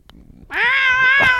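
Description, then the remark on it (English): A single drawn-out, complaining meow from a cat, loud, starting abruptly and holding a strained, wavering pitch for about a second with no talking over it. “is there a cat here? There is a cat.”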